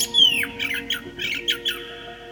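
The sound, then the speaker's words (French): A blackbird sings from its nest in a forest, a quick run of bright, whistled chirps, about five short bursts over a couple of seconds, clear above a faint steady hum. “Et de son nid, il leur chantait chaque jour sa chanson la plus mélodieuse en guise de remerciement.”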